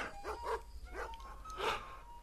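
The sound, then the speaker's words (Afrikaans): Dogs barking in a short, irregular run of about four sharp barks, heard alone over a faint low background rumble. “Die honde blaf, die koeie moe, die hoenders kloek en die voeltjies sing.”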